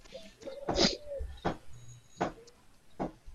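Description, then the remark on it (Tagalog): A pigeon coos in a short series of soft, throaty calls, about four of them spaced roughly evenly apart, against a quiet background. “Hindi manok. Abo. Dahil naalala ko dati hinahanap ko. Wala pati yan. Pabo ni nila nila Maki sa bahay ni. Ano namin papo. Kalapati”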